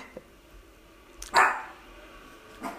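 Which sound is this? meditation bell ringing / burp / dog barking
dog barking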